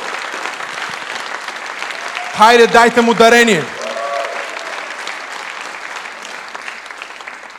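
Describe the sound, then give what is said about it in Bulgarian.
An audience at a church sermon applauds loudly for God, steadily throughout, a dense wash of clapping, while one voice briefly calls out over it partway through. “О, ако ще ръкопляскате, може да ръкопляскате силно за Бога.”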